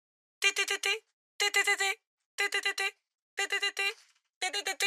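An alarm clock rings in five evenly spaced bursts, each a quick cluster of three or four bright, buzzy beeps, repeating about once a second with short silences between.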